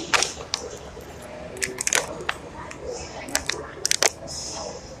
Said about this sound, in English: That's y'all hearing a pre-workout bottle and then a bottle of waters, man.